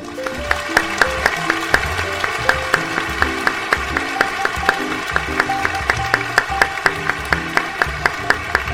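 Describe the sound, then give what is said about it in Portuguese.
Steady, rhythmic clapping, a round of applause welcoming a new character in an RPG Next interview, with sharp regular claps that keep going for several seconds over a bright, melodic musical backing, with no talking. “Enquanto o top não entrar, eu não paro de bater palma.”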